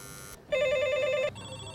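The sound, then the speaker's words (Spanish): An apartment intercom buzzer for the third-floor, first-door flat rings in one steady, bright electronic tone lasting under a second, followed by a fainter, thinner tone holding on; no one answers or speaks. “Tercero, primera. O le cuesta levantarse de la cama o no está.”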